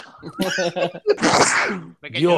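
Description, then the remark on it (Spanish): One loud sneeze bursts out in the middle, a sharp intake followed by a noisy, breathy blast, with laughter and talking just before and right after. “Estornudo.”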